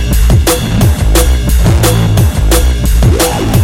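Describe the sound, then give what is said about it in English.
A Korg synthesizer played in a studio in a wild, frenetic burst: loud, dense electronic tones with sweeping pitches over a heavy bass line and sharp percussive hits landing roughly twice a second, with no talking. “Going absolutely batshit in his studio with his Korg.”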